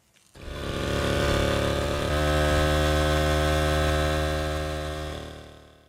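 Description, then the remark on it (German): A small Rex engine starts up and runs at a steady, droning idle, its pitch shifting slightly partway through, fairly loud, with no one speaking. “Jetzt hören wir mal in unseren kurzen sechssekündigen O-Ton, ob der richtige Sound rüberkommt.”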